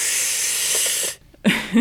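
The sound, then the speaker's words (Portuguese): A voice imitates a vacuum cleaner, recalling a 1980s Philips home appliance advertisement, with a loud, steady breathy hiss lasting about a second, a short pause, then a second rougher burst with a hint of hum underneath. “mas lembro do, do aspirador, era uma coisa.”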